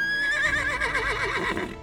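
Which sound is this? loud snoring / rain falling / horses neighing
horses neighing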